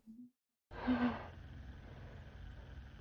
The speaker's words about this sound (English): Hear the vibrator. Oh yeah, you're right. And it kind of moves around.